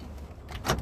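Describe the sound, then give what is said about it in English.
A car's door locks engage with one quick mechanical clunk, fairly loud, over a low steady rumble, with no one talking. “lock the door.”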